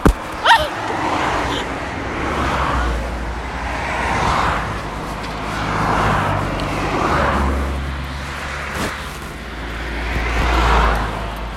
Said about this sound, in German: Wie viele Autos hier auf einmal kamen und da kommt noch eins.